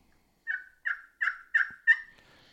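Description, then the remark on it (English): A soft turkey tree yelp played on a call: five short, raspy, evenly spaced notes at a moderate pitch, gentle and steady, with no voices. “Yep, just three three soft yelps.”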